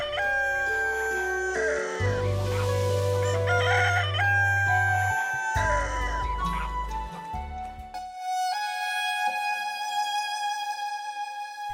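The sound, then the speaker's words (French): A rooster crows loudly, its drawn-out cock-a-doodle-doo rising and falling over a backdrop of low sustained music, which continues with held tones after the crowing fades. “Et depuis ce jour mémorable, les coqs du village sont bien plus matinaux que les autres.”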